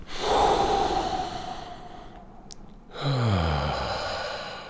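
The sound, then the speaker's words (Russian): A slow, deep breath drawn in, a short pause, then a long audible exhale that ends in a soft, sigh-like voiced release. No talking. “Например, могу ли я успеть вот этот момент заметить и сделать вдох?”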